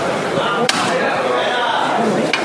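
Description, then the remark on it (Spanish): A procession float's knocker strikes twice, sharp and hard, about a second and a half apart, the call for the bearers to go out through the door, over a steady wash of murmuring voices and background noise. “Para salir por la puerta y, y escuchamos el llamado.”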